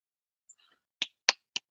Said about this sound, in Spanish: No tengo nada para ti más que aplausos.